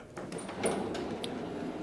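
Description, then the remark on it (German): A door opens with a short creak, a few scraping rattles and a faint high squeak of the hinge, and no voices in between. “Ich glaube, wir öffnen einfach die Tür.”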